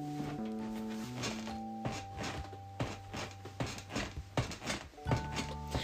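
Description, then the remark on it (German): A chair being sat in squeaks and creaks in a series of short bursts that grow busier toward the end, over a steady background of sustained tones; nobody speaks. “Ich sitze hier in meinem Stuhl. Und. Boah, der quietscht da richtig laut.”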